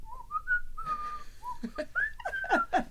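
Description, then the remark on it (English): A woman whistles a catchy pop tune along to songs being played, the clear melody rising and falling in short phrases, with a few breathy bursts between notes and no talking. “She didn't sing along to songs, but she would whistle.”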